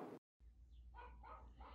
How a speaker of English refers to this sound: So that's the, the dog that you're hearing in the background.